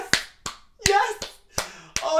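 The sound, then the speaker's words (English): Six sharp hand claps in a steady, slightly uneven rhythm, each a crisp bright smack, with a voice briefly audible between some of them. “If you're Abby Chatfield, I'm sure you're clapping being like, "Yeah!"”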